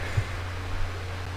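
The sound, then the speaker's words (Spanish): A steady, low electric fan drone with a soft airy hiss, the fan blowing directly onto a person, constant and unchanging throughout, moderately quiet, with no talking. “Me está dando muy de lleno el ventilador, quiero como apagarlo un poco y no me tendría que levantar.”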